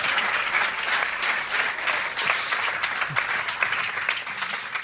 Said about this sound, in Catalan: Podeu aplaudir, podeu aplaudir.